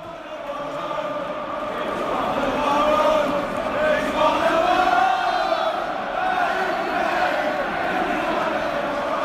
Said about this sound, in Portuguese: Essa é a musiquinha que a torcida canta pro Harry Kane, dizendo que ele é um de nossos, né? He's one of our own. Ele é cria da casa, começou na base do Tottenham.